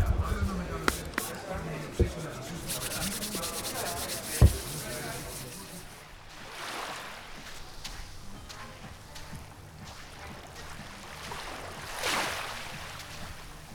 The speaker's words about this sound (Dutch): Oh ja, moet mijn handen wel even... Eh, even, eh, even handen desinfecteren.